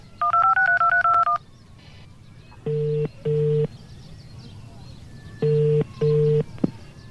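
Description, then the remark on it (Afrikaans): A rapid string of touch-tone keypad beeps dials a number on a grandmother's phone, then a ringback tone sounds in two pairs of long, steady double rings with pauses between, clear. “Maar hoekom bel ma van ouma se foon af?”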